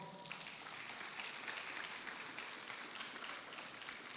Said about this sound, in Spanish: La iglesia le da palmas fuerte al Señor.